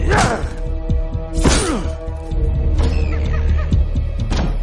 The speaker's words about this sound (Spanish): Barron destroza la puerta.